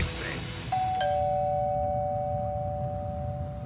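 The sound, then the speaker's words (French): A two-tone doorbell chime, rung by a 75-year-old man delivering meals to people in need in his neighbourhood, rings once, a higher note followed by a lower one that sustains and slowly fades, heard clearly over a low background rumble. “Le son de cette sonnette vous semble probablement bien banal.”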